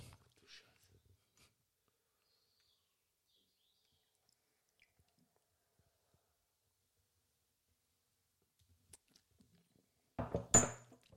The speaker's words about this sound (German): Boah, es wird jetzt geschlabbert und es hört sich jetzt gleich bestimmt komisch an. Ja, und trinken tun wir auch.